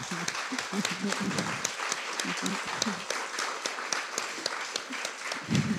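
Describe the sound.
An audience in Bergen applauds warmly for an author who came to talk about her book, a dense, steady patter of many hands clapping at an even loudness for several seconds, with a few faint voices murmuring underneath.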